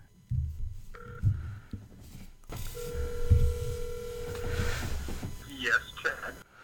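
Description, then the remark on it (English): A phone call is dialed: short steady beeping tones and a longer sustained tone, with low murmuring voices and rustling underneath. “Do you think I can like call him?”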